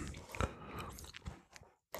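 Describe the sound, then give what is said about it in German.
Biting and chewing of a very firm, sour, sugar-coated fruit gum candy: a sharp bite near the start, then moist, squelchy chewing continuing in an uneven rhythm before a brief pause. “Reinbeißen. Oh, sehr fest. Boah. Und ist sauer.”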